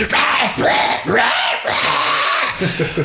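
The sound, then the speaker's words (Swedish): A voice imitates the growled vocals of a roughly 30-second grindcore song: harsh, guttural roaring in several loud bursts over about three seconds, raspy and animal-like, with no clear words. “Den är ungefär 30 sekunder lång, den låter ungefär så här.”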